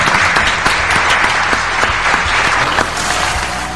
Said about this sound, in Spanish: Silvia, los aplausos.